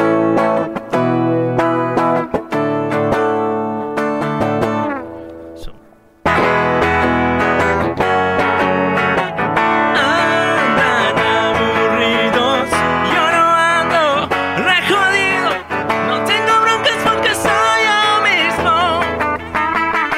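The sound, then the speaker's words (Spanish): A distorted electric guitar, a Les Paul, plays a loud, sustained solo with gritty, buzzing tone, breaking off briefly before launching into busier, higher melodic runs that continue to the end. “Ah, No, tiene ah, distorsión, ¿verdad?”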